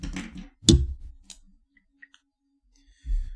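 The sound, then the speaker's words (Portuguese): A pen is handled with rustling and bumps, then clicked: one sharp loud click, a second lighter one, and a few faint ticks before more fumbling. No one speaks. “Opa, não é essa caneta, peraí.”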